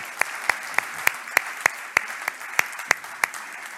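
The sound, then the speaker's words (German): Steady hand clapping, given in thanks to helpers who baked and prepared things behind the scenes for an event: about a dozen sharp, evenly spaced claps over a light background hiss, with no talking. “Ihr habt so einen mega Einsatz geleistet und ich möchte einfach von hier aus euch einen Applaus geben.”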